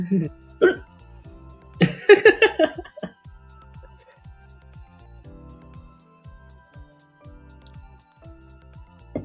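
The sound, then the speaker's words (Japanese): A few sharp hiccups from a man around thirty during a live stream break out near the start, one jolting into a short burst of voiced sound, before things settle into a quiet, steady low background pulse. “しゃっくりが止まらないです”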